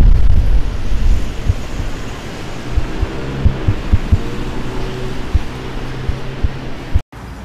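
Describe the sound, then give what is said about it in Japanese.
Steady, heavy low roar of busy street traffic on Kasuga-dori, recorded outdoors while walking without the microphone, with wind rumbling against the recorder, scattered small knocks and thumps, and a brief dropout to silence near the end. “はいということで今回はマイクを使わずにえー、春日通りを引き続き歩いていますどうでしょうか結構ね聞こえるんじゃないですかねちなみにマイクから顔の距離はさっきと同じぐらいの位置を取っているんですけれどもどうなんでしょうかなり車の通りは多いですね”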